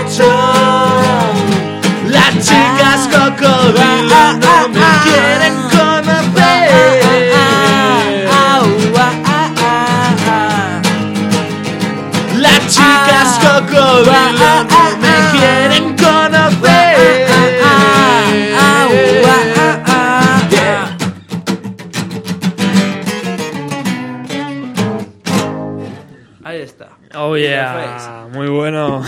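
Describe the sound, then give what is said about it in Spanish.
A band plays a song acoustically, a lively sung melody over steady strummed accompaniment, loud for about twenty seconds before thinning out and ending, followed by brief quieter voices. “Muy bueno, chicos, joder, qué bien suena así en acústico también, ¿eh?”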